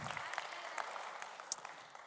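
An audience applauds steadily for about two seconds, a dense patter of many hands clapping at once, with a few sharper claps standing out; the applause is for the Seinäjoen Valaat team winning both its games.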